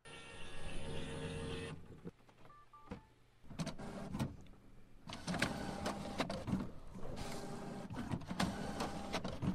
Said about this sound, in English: I actually recorded it so you could hear what I have to deal with, and maybe you're going through the same sleeping dragon syndrome. Check it out. This is my damn printer. When I press press print, this is the attitude I get.